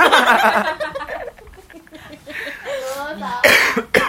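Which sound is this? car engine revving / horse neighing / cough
cough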